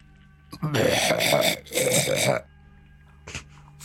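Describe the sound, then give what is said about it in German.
A person imitates a half-hearted goat bleat: a drawn-out, wavering bleat in two sustained bursts, fairly loud, followed by a brief short sound afterward. “Kommt unten an, an der Steigung, blickt drauf und hörst ein halbherziges Gemecker so.”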